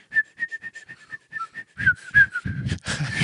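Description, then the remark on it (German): Someone whistles a continuous, wavering tune without pause, the pitch rising and dipping in a steady run of notes, clear, with breathy noise building toward the end. “kannst mit I und, und ausschnaufen, kannst ununterbrochen pfeifen.”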